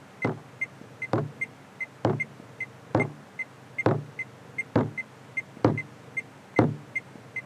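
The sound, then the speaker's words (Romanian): A fist bangs repeatedly on a car body, about a dozen loud, hollow thumps in a steady rhythm, each followed by a lighter knock, with no talking. “Prostule, nu mai da în mașină, coaie, că o încurci rău de tot cu mine.”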